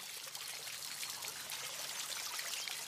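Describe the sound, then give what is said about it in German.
A small stream in a forest babbles and splashes steadily, a continuous bright gurgle of running water, with no voices over it. “Vielleicht kommst du an einem kleinen Flusslauf vorbei.”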